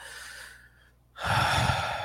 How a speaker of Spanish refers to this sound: debo recuperar las fuerzas por medio de la respiración profunda.